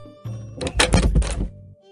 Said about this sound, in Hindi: सुमेर बनिए के बाहर जाते ही दरवाजा बंद कर लेता है